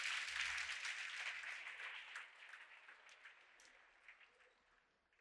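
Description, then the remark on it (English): An audience gives the Lord a hand clap of praise as they take their seats at a morning church service, a dense, crackling wash of applause that slowly thins and quiets over several seconds, leaving a few scattered claps at the end. No one speaks. “Come on, give the Lord a hand clap of praise as you take your seats this morning.”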